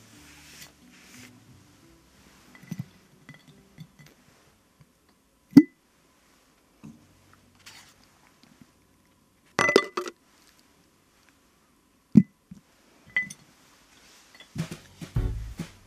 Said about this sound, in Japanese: 今日もこのコースターをガラス瓶に入れて保存したいと思います